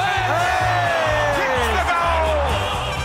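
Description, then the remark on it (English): A loud football crowd of Hawthorn fans roars and cheers after a goal by Hawthorn's James Worpel, with high whoops and yells rising over a dense, sustained wall of noise and a pulsing low rumble underneath. “Oh, don't mind listening to those highlights and the Hawthorn faithful.”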